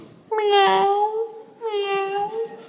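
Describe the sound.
A person's voice imitates a cat, giving two drawn-out, nasal meows back to back, each about a second long, fairly loud with a short pause between them.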